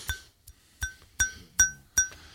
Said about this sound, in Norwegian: Hva er det? det er eh, glass. Det er lyden av pokal. Skal komme tilbake til det. Eh, glasspokal. Glasspokal, ja.